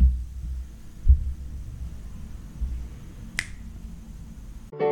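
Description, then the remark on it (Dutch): Opening of a newly made short jingle: deep, throbbing bass pulses thump along slowly, then a single crisp finger snap rings out near the end. No one speaks. “een nieuwe jingle gemaakt. En ik ga die laten afspelen, vooral duidelijk.”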